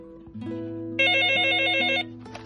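A phone rings on an outgoing call to the owner of a lost ID card: one loud, bright electronic ring with a rapid warbling trill lasts about a second over a steady low tone, then cuts off. No one speaks.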